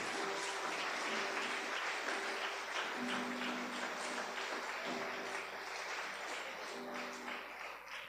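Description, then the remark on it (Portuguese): A church crowd applauds the Lord God Almighty steadily for several seconds, a dense, continuous wash of clapping with a faint low hum underneath and no voices. “Pode aplaudir o Senhor Deus Todo-Poderoso.”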